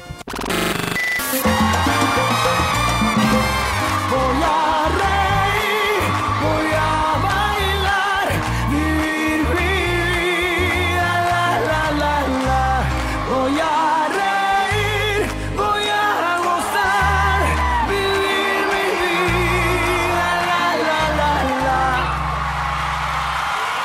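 A full-band Latin pop song plays steadily at high volume, with a lead singer's voice riding over thick bass, rhythmic percussion and bright, layered instruments throughout.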